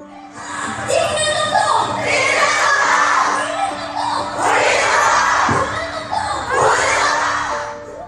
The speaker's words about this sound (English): That's the sound of 70,000 Korean women protesting an alarming rise in pornographic videos made from spy cams placed in public bathrooms and change rooms.